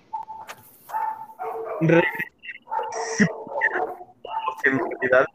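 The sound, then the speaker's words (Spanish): A dog barks repeatedly in short, loud bursts, with people's voices talking over and between the barks. “Se escucha más un perro, güey.”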